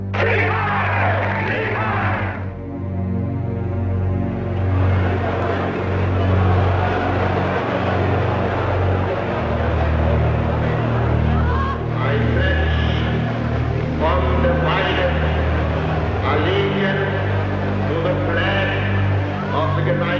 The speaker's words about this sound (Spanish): Durante el acto, el tumulto abucheó al presidente Franklin D. Roosevelt e hizo el saludo nazi gritando Heil Hitler.